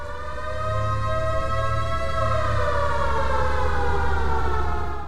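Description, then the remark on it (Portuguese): A steady, loud siren wails continuously for several seconds, its harmonic tone slowly sliding downward in pitch, with a low rumble underneath and no voices. “Vai tocar a sirenezinha aí, ó, ó, tá ouvindo?”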